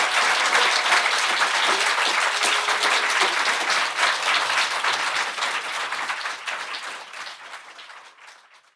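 audience applause

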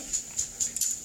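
dog scratching itself

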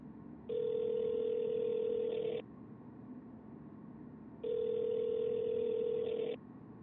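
telephone dialing and ringing

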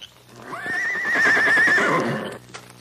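horse neighing

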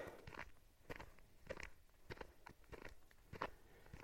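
footsteps walking

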